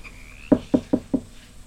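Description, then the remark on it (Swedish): Four firm knocks in a quick, even rhythm, fairly loud, with a faint high tone fading out just before them and quiet background afterward. “Ja, jag, jag hör att det knackar”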